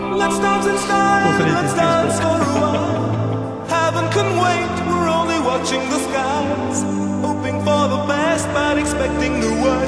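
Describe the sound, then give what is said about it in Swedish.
A 1980s pop ballad plays loud and continuous, a male voice singing over sustained synth chords and a steady, slow beat, with no talking over it. “Det här, ballad.”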